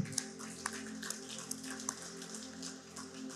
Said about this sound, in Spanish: Así que vamos a dar un aplauso al Señor otra vez.